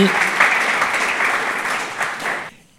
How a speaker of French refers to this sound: Applaudissements pour un promoteur heureux.